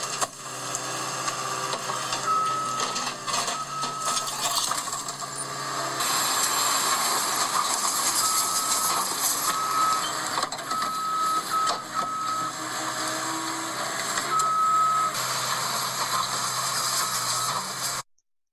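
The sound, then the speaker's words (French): An excavator demolishing a small residential house: a steady, dense roar of machinery with grinding and clattering debris, plus short intermittent high squeals, continuous for about eighteen seconds with no talking. “on a entendu euh, une, vidéo qui le, n'est pas très bien, mais c'est un, excavateur, excavateur qui était en train de démolir une maison, une petite maison d'habitation”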